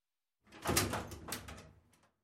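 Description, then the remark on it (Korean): A house door swings shut with a solid thud and a brief rattle of the latch as someone leaves the house, the sound fading over about a second and a half with no voices. “나는 노트북을 겨드랑이에 끼고 K의 집을 나와 문을 닫았다.”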